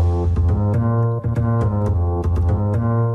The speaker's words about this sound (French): Vous l'avez reconnu Le générique mythique de recherche appartement ou maison